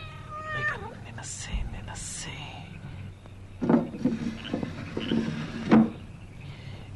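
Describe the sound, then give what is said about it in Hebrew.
A cat meows several times, drawn-out, wavering cries spaced a few seconds apart, with soft shuffling and faint knocking sounds in between. “רק אתה חסר לי כאן, שכחתי שיש לאיתן חתולים.”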